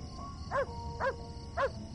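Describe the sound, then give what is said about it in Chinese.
A dog barks three times in an even rhythm, each bark short and mid-pitched with a slight upward-then-down tonal arc, over a steady low background hum. No one speaks. “这个时候，路边突然就传来了几声狗叫”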